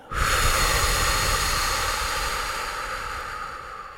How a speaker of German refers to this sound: Und wir atmen tief mit der Nase ein und mit dem Mund wieder aus.